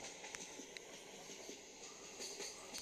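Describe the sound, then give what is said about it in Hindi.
A train, the Goa Express, rolls along the rails with a steady low rumble and irregular metallic clacks from the track joints, heard faintly and continuously with no voices. “मैं बता चुका हूँ कि इन हम रेल में थे”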